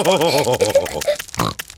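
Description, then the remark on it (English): A voice imitates a pig, making a quick run of rhythmic nasal snorts and grunts, followed by a brief higher squeal near the end. “I want to make big snorts too.”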